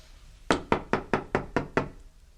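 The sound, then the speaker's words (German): Seven quick, evenly spaced knocks on a wooden office door, fairly loud, each a sharp rap with a short decay, followed by quiet. No one speaks. “Na, dann wollen wir doch mal sehen, ob jemand drin ist.”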